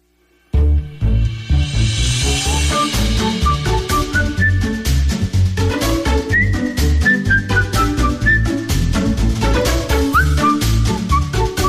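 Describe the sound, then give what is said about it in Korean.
A bright whistled melody with gliding, sustained notes plays over a full, steady backing of music with a strong beat, starting abruptly after a brief silence and staying loud throughout. “네, 오늘도 휘파람 소리와 함께 마을 공동체를 소개합니다.”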